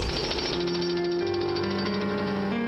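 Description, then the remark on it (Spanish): Hard stone being pounded with rapid, continuous mechanical hammering, a steady rattling pulse like a pneumatic drill that runs throughout, with a low sustained hum beneath it and no voices. “Estoy picando la piedra dura.”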